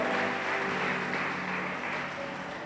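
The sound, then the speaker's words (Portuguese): An audience applauds God in praise in a steady, dense wash of clapping that holds at an even level throughout, with a faint sustained tone underneath and no one speaking. “Se você está entendendo, aplauda esse Deus maravilhoso, soberano, bendito, aleluia.”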